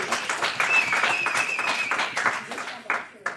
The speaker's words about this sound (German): Und ja, ihr dürft natürlich gerne auch klatschen, äh, denn äh, oh. sonst hört man ja nicht, dass hier so viele Leute sind.